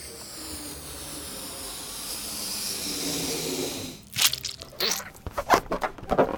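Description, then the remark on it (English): A bubble of chewed, super stretchy bubblegum being blown up: a steady, airy hiss swells for several seconds, then gives way to a burst of sticky crackles and small snapping pops, fairly loud, with no voices. “Ah, super stretchy bubblegum, blowed up and ready to be placed.”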